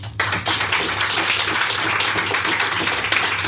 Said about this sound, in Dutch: Dus mag ik alvast een applaus